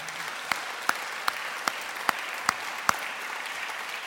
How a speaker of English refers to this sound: and there were some people who slaved away till the early hours to get this place shipshape for this morning. So I think if you could give them a round of applause just to thank them.